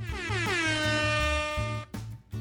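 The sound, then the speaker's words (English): A loud, brassy air horn blares in one long sustained blast with a slightly sagging pitch over a pulsing low beat, then cuts off abruptly into brief noisy hits. “Yeah, I used to think I was better than air horns.”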